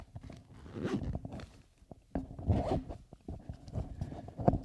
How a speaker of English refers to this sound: Okay. Now we just got to get this zipped up.